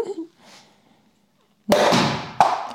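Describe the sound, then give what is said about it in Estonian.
A loud, sudden pop bursts out after a near-silent stretch as a sparkling wine cork flies out of the bottle, followed by a rush of hissing fizz and a second sharp crack. “oh my god no see oli pigem pauguga siis.”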